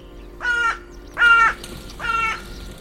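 A carrion crow (Corvus corone) gives three harsh, evenly spaced caws, each a rasping call of similar length, heard clearly against a quiet outdoor background with no one speaking.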